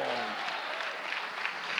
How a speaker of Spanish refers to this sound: Dele fuerte ese aplauso y diga, gloria a Cristo